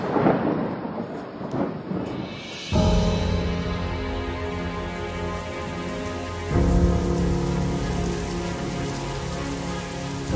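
Steady rain patters on a surface with a dense, even hiss, soon joined by sustained low synth chords that swell in and hold while the rainfall continues underneath. No one speaks.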